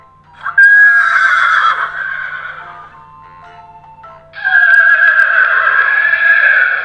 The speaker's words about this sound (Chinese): 这是马儿的叫声。